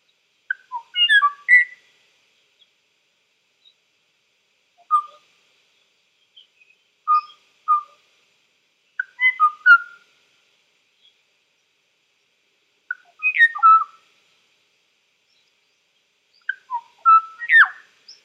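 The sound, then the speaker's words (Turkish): A Kauai oo, an extinct honeyeater bird of Hawaii, sings alone: short, clear, flute-like whistled phrases of a few notes each, repeated about six times with brief silent gaps, moderately loud against a quiet background. “Bu hayvan bir kuş. Hayvaiden adı Kuayo ve onun bugün nesli tükenmiş. Kuayo sesi böyleydi.”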